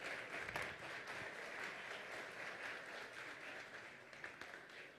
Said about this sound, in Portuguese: E essa primeira salva de palmas eu peço a vocês mesmos que estão aqui, aos sócios diamantes.